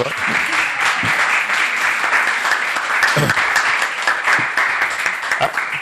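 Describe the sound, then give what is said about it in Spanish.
An audience at a book presentation applauds steadily for about six seconds, a dense, even wash of many hands clapping at a fairly loud level, with faint voices mixed in underneath. “Un aplauso.”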